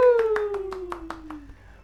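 About eight steady, evenly spaced hand claps ring out over a sustained tone that slowly glides downward in pitch, then fade out.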